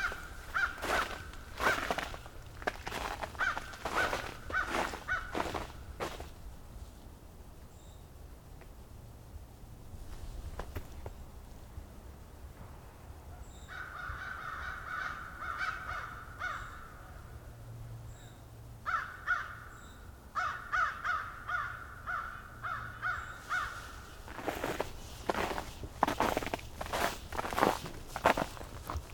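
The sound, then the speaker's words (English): An American crow caws in repeated bursts from some distance, clear and fairly loud, while close footsteps crunch steadily at the start and end. “American Crow behind me.”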